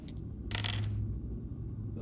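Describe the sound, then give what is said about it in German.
Two ten-sided dice, one metal and one black, clatter briefly across a hard surface in a single bright rattle that settles within half a second, over a low steady room hum with no talking. “ich äh, würfel jetzt mal hier einen äh, äh, zwei zehnseitige Würfel.”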